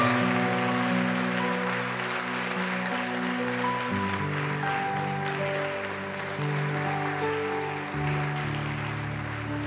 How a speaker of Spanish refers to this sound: Iglesia, denle un fuerte aplauso al Señor por ellos.